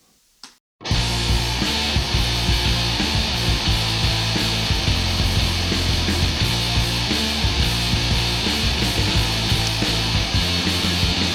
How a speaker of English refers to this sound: Sounds like Norwegian black metal with a groove. and also a bit happy. I think a little bit too happy, maybe. Yeah. This is a major. This is a major.